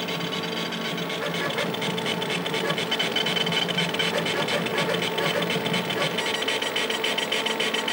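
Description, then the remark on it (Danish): A computer disk drive grinds steadily while the computer lists the files on the disk and sorts their names alphabetically, a fast, continuous mechanical chattering with a harsh, scraping, knife-like edge that holds an even loudness for the whole stretch, with no one speaking. “Den der knivlyd, man hører, det er en sortering.”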